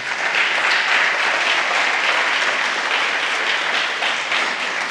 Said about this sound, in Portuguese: Dá um aplauso